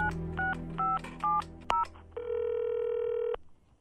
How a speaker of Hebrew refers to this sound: הוא הוציא את הטלפון הנייד, שם אותו על מצב רמקול והתקשר למוניות קשת.